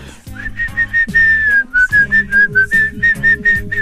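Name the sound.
whistling a song melody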